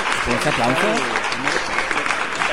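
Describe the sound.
Dense, steady applause fills the whole stretch at a fairly loud level, with a man's voice speaking over it for the first half.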